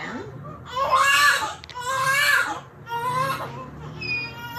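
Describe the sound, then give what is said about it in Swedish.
A newborn baby girl cries just after being born, in three long, wavering wails separated by brief gasps for breath, the high, strained cries loud and steady with no one talking over them. “Men hon kom ut och hon lät så här.”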